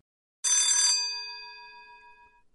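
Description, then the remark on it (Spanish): A doorbell rings in one bright, rattling burst of about half a second, then its metallic tones hum and fade slowly over the next two seconds. No voices are heard. “Usted no necesita tocar el timbre en JR Multiservicios y la tiendita porque siempre las puertas están abiertas.”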